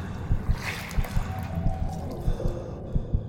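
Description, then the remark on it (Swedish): Something stirs and sloshes in water just outside a door, making strong turns, with irregular soft splashes and low thumps repeating every half second or so for several minutes, fairly quiet, with no one speaking. “Något stör runt i vattnet.”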